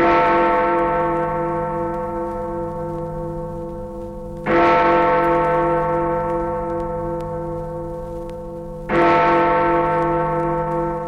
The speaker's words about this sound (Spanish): Pero un poco antes ya habían aparecido los primeros grandes relojes de las ciudades, con grandes campanas. Todos estos relojes solo daban las horas, no los minutos. Solo tenían una manecilla y al dar la hora sonaban las campanas.